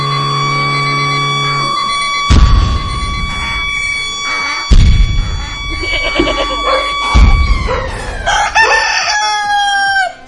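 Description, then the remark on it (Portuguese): A rooster crows a few times over a steady droning tone, with sharp thumping bursts breaking in between the calls; the crowing is fairly loud. “Cadê o galo?”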